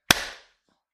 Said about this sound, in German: Drei, zwei, eins, klatsch.